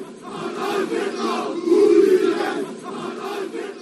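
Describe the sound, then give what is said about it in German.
A crowd of right-wing demonstrators with clenched fists shouts together in a dense roar of many voices with rhythmic, chant-like swells. It grows loudest in the middle before easing slightly, with no single voice standing out. “Videos von dem Tag zeigen rechte Demonstranten mit geballten Fäusten und immer wieder Rufe.”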